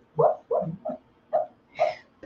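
A dog, Kiki, lets out five soft, muffled whimpering yips in a quick, uneven series while asleep and dreaming, fairly quiet, with short pauses between them and no talking.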